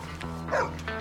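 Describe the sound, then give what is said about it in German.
A leashed dog gives a short bark or yelp over a steady low hum, one brief burst in the middle of a short moment. “dahinter ein Hund wartet”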